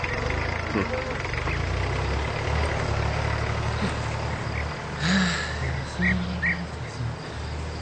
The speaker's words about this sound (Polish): naja, der Traktor.